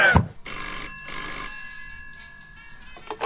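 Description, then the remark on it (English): A telephone rings with a bright, trilling electronic bell in two quick bursts, the tone lingering and fading afterward; a short thump of handling noise comes just before the ring. “Henchman agent on the phone straight away for Niska.”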